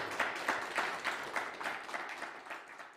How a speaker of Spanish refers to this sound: Aplausos para el, para el Eterno, para el bendito sea.